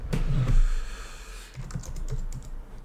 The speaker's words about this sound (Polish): a tutaj muszę, muszę wstukać numer, więc zaraz no zobaczymy. Tak, zaraz zobaczymy jak to jak to zrobić, ale powinno się udać. Opy, klawiatura numeryczna i zaraz tutaj